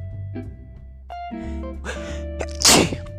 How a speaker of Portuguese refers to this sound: Vou espirrar e não vou cortar do vídeo, no, do, do áudio, tô nem aí.